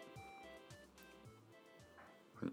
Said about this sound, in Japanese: 今のおならじゃなくてこの椅子の音ですからねはいはいおならじゃないですよ